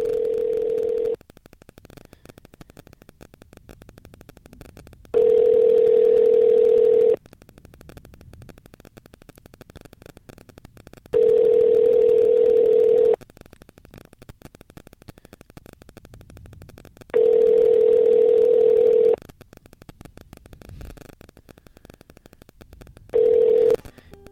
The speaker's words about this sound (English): Here's a ring again.